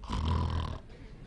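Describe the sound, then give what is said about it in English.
A man imitates snoring with his voice: one loud, rasping, throaty snore that lasts under a second and then stops, leaving a quieter tail. “Jesus came back, them rascals were snoring.”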